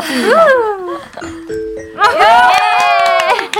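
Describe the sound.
A voice sings a rising three-note ding-dong-dang correct-answer chime, with gliding, warbling pitch. It is clear and moderately loud, with a short steadier tone in the middle.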